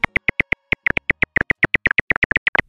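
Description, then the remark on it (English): A rapid series of short, sharp chirping pulses, roughly twenty in under three seconds, fairly regular with slight stutters, loud with no voices. Silver-haired bat calls, recorded and frequency-shifted down into a range human ears can hear. “This is a silver haired bat.”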